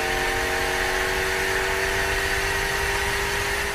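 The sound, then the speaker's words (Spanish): A racing car engine at the Jeddah circuit drones loudly and continuously as the car decelerates into the tight turn 27 before the main straight, its buzzing tone holding nearly steady with layered humming overtones and a rough, grainy low rumble, and no voices. “Y aquí desacelera ante la curva número 27. Bien cerradita.”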